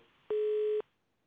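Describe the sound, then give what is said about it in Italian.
A single steady electronic tone, about half a second long, the beep of a listener's phone call dropping during a live call-in broadcast, sounding alone over faint background hiss with clean abrupt starts and stops. “Perfetto, mi sa che è caduta l'altra telefonata.”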